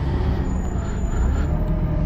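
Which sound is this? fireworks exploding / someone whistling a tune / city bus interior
city bus interior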